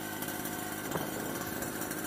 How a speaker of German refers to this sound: Mofa! Er meint Mofa!